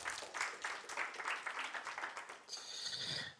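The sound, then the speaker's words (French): An audience breaks into applause for the technical team, a dense, steady patter of many hands clapping at once for a few seconds, with a bright, high-pitched tone joining in near the end. “On peut les applaudir, remercier l'équipe technique qui font du bon boulot.”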